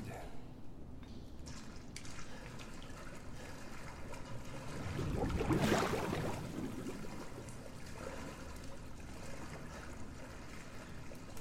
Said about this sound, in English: Yep, treading in water, what looks like shit water, is hella creepy.